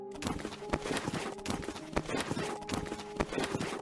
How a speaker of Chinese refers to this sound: 她移动时都是将双手当作脚一样快速爬行，且由于没有了下半身，断裂的脊椎在地板上拖行，并会在移动时发出 Teke Teke 的声音，也就是以下的声音。